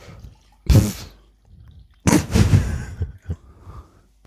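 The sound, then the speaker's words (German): Rosehip-hibiscus tea is poured into a cup in two splashy bursts: a short pour, a pause, then a longer trickling stream with a few drips at the end. No one speaks. “könntest du etwas von diesem äh, Hagebutte Hibiskus-Tee in diese Tasse gießen, bitte?”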